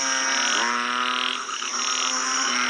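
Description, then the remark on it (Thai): A frog croaks in a loud, continuous drone that runs unbroken for nearly three seconds and dips briefly midway. It is steady, with no voices. “สัตว์จำพวกนี้ก็ได้แก่ปลาแมลงสัตว์ สะเทินน้ำสะเทินบก เช่น กบ เขียด คางคกอึ่งอ่างนะครับ”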